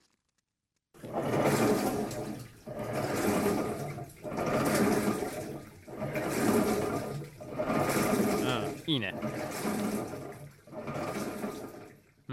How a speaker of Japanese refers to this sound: うちの洗濯機の音ですと